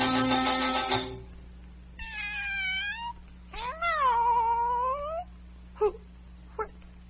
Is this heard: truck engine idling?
no